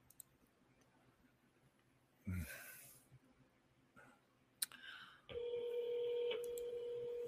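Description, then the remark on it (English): Telephone dialing tones as someone phones a man: after a brief rustling thump and a sharp click, a steady electronic tone sounds continuously and fairly loudly through the final two seconds, with no talking. “I'm calling him on the phone.”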